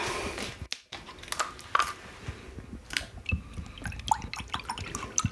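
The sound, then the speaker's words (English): Water is poured into a glass for an altar offering, a trickling, splashing stream broken by small clinks and drips over several seconds, with no talking. “And so you always have to put in your altar a glass of water for them, siempre. So that's what we're gonna do now.”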